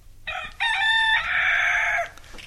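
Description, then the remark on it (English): A rooster crow sound effect, played when introducing Alun Cochrane as "the Cockerel": a single loud, drawn-out cock-a-doodle-doo lasting about two seconds with a rising, strained middle section, over a faint low background hum and no talking. “I'm with Alun Cochrane, the Cockerel.”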